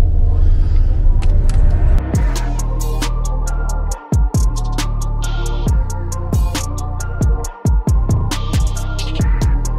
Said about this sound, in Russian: пока греем машину